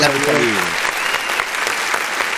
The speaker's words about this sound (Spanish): Muy bien, un aplauso para